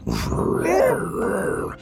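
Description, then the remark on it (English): A voice imitates a tiger's growl: a low, rough, sustained grunting rumble lasting under two seconds, swelling in the middle and fading out, with no words spoken. “You hear the tiger,”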